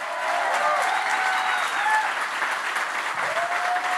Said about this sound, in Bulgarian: Ръкопляска, ако вярваш в това.